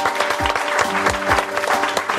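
Steady applause from an audience, a dense, continuous patter of many hands clapping at moderate loudness, with faint voices and cheers mixed in.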